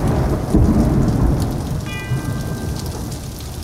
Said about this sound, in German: Sei es das Donnerwetter mit reichlich Regen zu Beginn, durch den man eine einzelne Totenglocke klingen hört